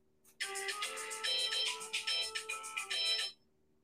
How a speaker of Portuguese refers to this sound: Alarme no meu celular.